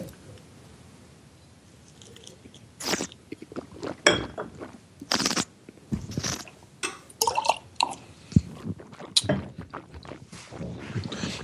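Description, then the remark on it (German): Water sloshes and splashes inside a drinking glass being rinsed out with water, with irregular swishes, drips and a few light clinks of glass over about ten seconds. “Also ich, ich spüle meins mal aus mit so Wasser mit so.”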